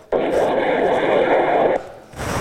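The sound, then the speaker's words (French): A dense, steady murmur of overlapping voices like cocktail party chatter, synthesized with wavelets, though no individual words come through; it sounds slightly artificial and textured, running for about a second and a half before cutting off abruptly. “Et le cocktail par ondelette.”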